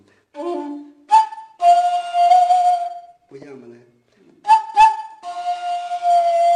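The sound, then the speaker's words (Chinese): A dongxiao, a Korean-ethnic Chinese vertical bamboo flute, imitates birdsong with quick ornamented chirps that open into long, steady, bright held notes, played in two phrases. Brief speech comes before and between them. “那个鸟叫一样，这都要技巧。”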